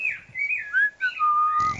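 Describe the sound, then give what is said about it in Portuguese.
A person whistles a short, bird-like phrase imitating a sabiá thrush's song: several clear sliding notes. The last long note falls, then a burst of rough noise cuts it off. “E assobiar também não sei.”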